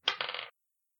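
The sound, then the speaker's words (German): Dice clatter across a hard tabletop in a brief rattle lasting about half a second, with a sharp first hit followed by a quick tumbling roll before silence, rolled during a tabletop role-playing game. “Und ich würfel relativ schlecht.”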